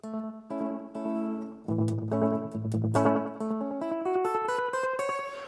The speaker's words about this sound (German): Und zwar, wenn ich da so hier drauf drücke und dann kann ich das einstellen, dann ist das zum Beispiel jetzt so ein ganz schnelles Echo. Das klingt jetzt so, als würde ich im Badezimmer sitzen.